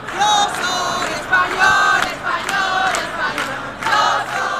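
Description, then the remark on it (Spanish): A large crowd in Spain shouts in celebration on 11 July 2010, the day of the World Cup final in South Africa, many voices roaring together in loud, rhythmic surges that rise and fall every second or so without pause. “La final de Sudáfrica se jugó el 11 de julio de 2010, un día después de la multitudinaria manifestación contra la sentencia del Estatut mientras por todos los rincones de España se gritaba con orgullo esto.”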